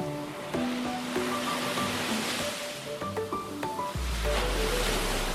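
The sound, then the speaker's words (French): Ocean waves wash steadily against the shore in a continuous, fairly loud roar, deepening into a heavier low rumble near the end, with faint tonal sounds drifting over the surf. “Bref, euh, ça empêche quand même pas les gens de Bejoine Bits de se rassembler autour d'un gros feu de joie avec en background le son des vagues.”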